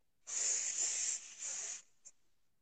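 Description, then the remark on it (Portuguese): A person exhales a long, steady hissing "sss" as a vocal breathing exercise, breathing in through the nose and releasing through the mouth. The bright, airy hiss dips briefly midway, surges again, then stops, followed by a faint short puff. “Não, são, são exercícios vocais de articulação, por exemplo, de respiração é, respiração é um exercício simples, é você fazer o sonzinho do S, sabe? Você puxa com o nariz e solta pela boca.”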